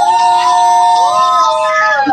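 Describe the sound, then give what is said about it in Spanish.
Excited, high-pitched screaming from a contest winner's wife, son and mother, loud and sustained for about two seconds, the shrill voices overlapping and wavering slightly in pitch without any break. “Oye, escuchamos gritando a alguien ahí.”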